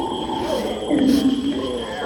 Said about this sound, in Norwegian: Grunnen til at de lager den lyden her, er at brølapa de spiser bare blader. Så de har så lav energi, de er så slapp, så de orker ikke å kjempe for sitt område. De orker ikke å slåss med hverandre.